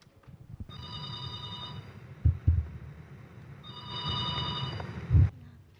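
A telephone rings as a call is placed, in two long, steady bursts of bright, buzzy tone separated by a pause of about two seconds, with a few dull low thumps in between and no talking.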